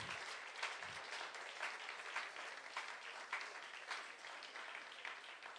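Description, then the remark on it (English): An audience applauds steadily for several people coming down to the front, a dense wash of many hands clapping at once, sustained and fairly loud throughout with no voices standing out. “Let's give them a hand clap.”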